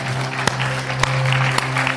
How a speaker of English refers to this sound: Can we give the Lord a hand clap because he's good all the time?